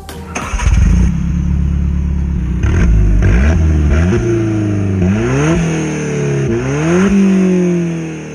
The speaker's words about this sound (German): Und in Folge 90, das haben wir schon angekündigt, da gibt es ein sportliches Auto und das klingt so. Der Sound.